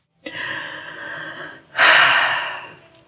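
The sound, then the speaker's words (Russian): Two shaky, breathy inhalations, the second a louder, sharper gasp, as someone cries and sniffles. No speech. “Вы сейчас плачете? Да, я плачу.”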